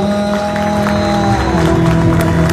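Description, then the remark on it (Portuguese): An audience at a church service claps steadily in a dense, continuous round of applause, loud throughout, with sustained keyboard-like tones held underneath and some crowd murmur mixed in. “Em nome de Jesus, dá uma salva de palmas.”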